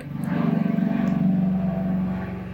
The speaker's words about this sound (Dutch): helikopter. Er komt even een helikopter langs.